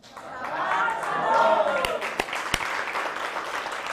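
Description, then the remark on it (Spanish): A group claps and cheers loudly for several seconds on Shabbat after a meal, with voices whooping over the dense patter of hands and a few sharp, isolated claps standing out midway. “Baruch Hashem, así que un fuerte aplauso porque estamos en Shabbat.”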